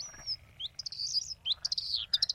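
A bluethroat sings a lively, varied phrase of high whistles, buzzy trills and rapid chirping notes in quick bursts, with a steady low rumble underneath and no voices.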